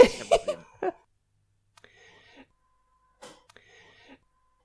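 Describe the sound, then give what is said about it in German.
A coffee machine sputters loudly for a moment, then gives two quieter gurgling, hissing bursts a second or so apart, with no one speaking. “jetzt bin ich kurz still, das war nämlich unsere Kaffeemaschine, die da rein blubbert.”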